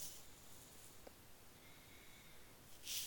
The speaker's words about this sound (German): du bist so tief am Atmen.